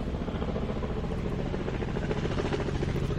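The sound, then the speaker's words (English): A helicopter passes overhead with a steady, dense rotor throb and low engine rumble, loud and continuous throughout with no talking. “Hold on, we have a helicopter.”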